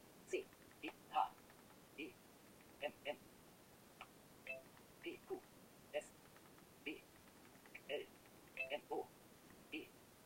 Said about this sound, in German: Die Klingeleien sind Benachrichtigungen, die hier im Telegram durchkommen.